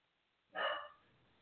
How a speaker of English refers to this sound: I'm sorry if you hear the dog. It's just a bit. Yeah, hard. I'm going to go and sort that out in a minute